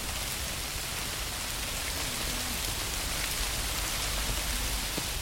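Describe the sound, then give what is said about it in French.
Steady rain patters on iris flowers and leaves, a dense, even hiss of droplets with no voices, continuing without pause for the whole stretch. “Même passion pour les fleurs, les couleurs, les bruits qui n'ont l'air de rien, la pluie qui tombe sur les iris.”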